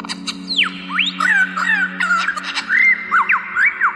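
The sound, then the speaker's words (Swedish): A lyrebird, an Australian bird species, pours out a loud, varied stream of mimicked calls, imitating many different sounds, including other bird species: sweeping whistles, rapid chirps and sharp clicking notes that shift constantly, with no one talking. “Lyrfåglar är en australiensisk fågelart och mest känd för sin förmåga att härma ljud i sin närmiljö.”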